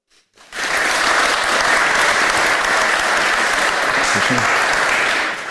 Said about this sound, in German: Ja, erstmal vielen Dank an die Teilnehmer, dass sie sich darauf eingelassen haben, das Experiment mit uns zu starten. Heute bei unserer Veranstaltung. Ich denke mal, es ist nochmal ein extra Applaus wert.